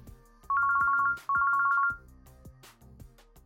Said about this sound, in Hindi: एक दिन रामदीन का फ़ोन बजा